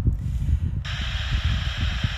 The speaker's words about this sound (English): And for those of you at home, you probably can hear this static. Basically, you pick um, a station. A state. Well, not a station. You pick AM or FM. So it's on AM right now, and then you sweep it. So, so it's like a seek button.